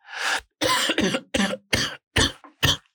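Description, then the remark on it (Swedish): A harsh coughing fit from a cough that keeps returning weeks after a 39-degree fever: about seven rough, forceful coughs in quick succession with brief gaps between them, and no talking. “det är många veckor sedan jag låg hemma med 39 graders feber, men hostan kommer tillbaka.”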